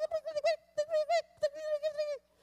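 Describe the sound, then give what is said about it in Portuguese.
A squeaky, high-pitched tiny voice chatters in quick bursts of syllables, fairly loud, as someone imitates a little talking ant. “Se um dia você chegasse na sua cozinha, meu irmão, e você começasse a ouvir uma vozinha assim, ó.”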